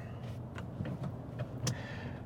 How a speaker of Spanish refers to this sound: Lo del tráfico me mata, lo siento, sé que no gusta a algunos que lo comente, pero es que me, mata.